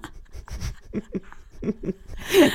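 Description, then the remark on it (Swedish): A voice imitates a fart with breathy puffs and low voiced sputters, ending in a loud, drawn-out hiss with a rising squeaky edge. It is fairly loud, with no speech. “Jag gjorde ganska rätt ljud.”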